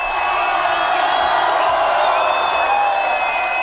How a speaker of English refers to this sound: We're back at the Beach Club in Brighton with a wonderful crowd. Let's just hear them a minute.